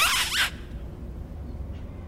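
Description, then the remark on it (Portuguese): A brief, loud metallic screech at the start gives way to the steady low rumble of a train running, heard from inside while riding it as public transport, with no voices. “Ah, bem, eh, como podem ouvir pelo som do comboio, estou a usar transportes públicos pela primeira vez.”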